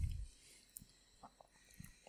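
Quiet chewing of a butter biscuit: a low thump, then a handful of small, irregular crunchy clicks spaced across a couple of seconds, with no talking.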